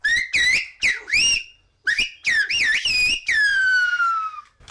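A loud human whistle in Silbo Gomero, the whistled language of the island of La Gomera, whistling the phrase 'Catástrofe Ultravioleta': it rises and falls in gliding, warbling phrases with short gaps, ending in one long descending tone. No talking.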